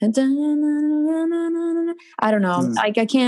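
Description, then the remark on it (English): A voice imitates a guitar or synth riff from a song, holding a steady sung pitch with a pulsing rhythm for about two seconds, then breaks off into brief casual talking. “I don't know what any of it's called, but I could just mimic it, sort of.”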